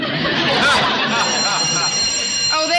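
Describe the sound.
A school bell rings loudly and continuously for about three seconds, a harsh, buzzing electric clang with a steady metallic tone and faint voices murmuring underneath, signalling the start of a class.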